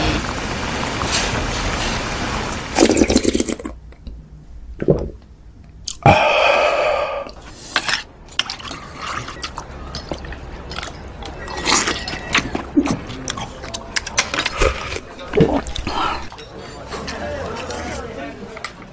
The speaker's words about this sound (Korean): 오늘의 소리는요 후루룩 국밥 먹는 소리였습니다